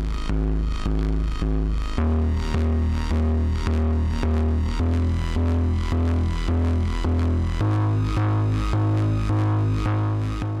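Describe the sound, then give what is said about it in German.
A gritty, distorted bass from a Novation Bass Station analog synthesizer pulses in a steady repeating pattern in three-four time, loud and up front, with bright rhythmic hits layered over it and no voices. “Also der Bass am Anfang ist von einem analogen Synthi, das ist die Novation Bass Station da gibt es noch zwei Möglichkeiten, um Verzerrungen dazu zu drehen und dann kommen so schöne Artefakte dazu.”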